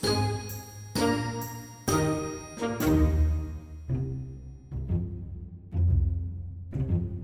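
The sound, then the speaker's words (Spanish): Church bells ring out in a steady, overlapping peal, each strike blooming with rich metallic overtones and a long ringing decay, loud, with no voices. “Es algo que las campanas están ahí detrás, las oímos sin escucharlas o las escuchamos sin oírlas, pero que nos van marcando también una pertenencia a una comunidad.”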